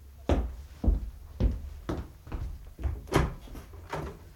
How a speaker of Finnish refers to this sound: Minun piti juuri soittaa ovikelloa, kun ovi aukesi.